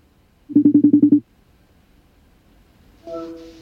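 A quick run of seven short, evenly spaced electronic beeps, like a phone being dialed, followed after a pause by a steady buzzing ring tone from a call connecting.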